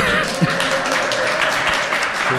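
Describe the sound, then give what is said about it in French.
A live audience in Paris, at the fourth Rencontres francophones de la vidéo mobile et de l'innovation éditoriale, bursts into steady, dense applause with scattered cheers and whoops. The loud, continuous wash of clapping holds for a couple of seconds without letting up. “On est en direct et en public, faites du bruit”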